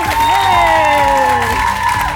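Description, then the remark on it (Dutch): An audience applauds and cheers loudly and steadily throughout at the end of a quiz show, with whoops and shouted voices rising above the dense clapping. “En een applaus voor jullie zelf.”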